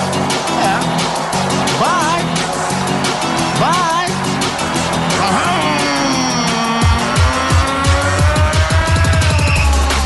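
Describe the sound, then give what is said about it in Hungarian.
An old jalopy car sputters and revs loudly, then pulls away with a whine of its engine, while voices carry on under the noise. “Mas é por causa desse calhambeque, sabe?”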